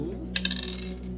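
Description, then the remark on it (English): Three dice are rolled across a table during a tabletop role-playing game: a quick clatter, a few sharp clicks close together followed by brief rattling, fairly quiet with no talking. “Another three dice.”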